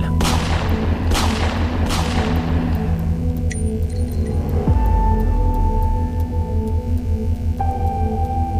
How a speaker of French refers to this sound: Le 28 août 2020, dans la soirée, trois coups de feu résonnent dans le quartier présidentiel.